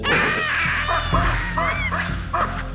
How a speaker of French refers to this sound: Les babouins c'est rapide et ça fait beaucoup de bruit. Paniquée de l'avoir rencontré, la troupe de singes se met à pousser de puissants cris d'alarme qui résonnent dans toute la vallée.